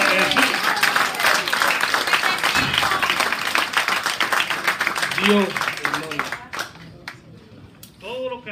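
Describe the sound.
An audience bursts into loud, sustained applause, a dense wash of clapping lasting about six seconds before it fades and a man's voice speaks over the tail end.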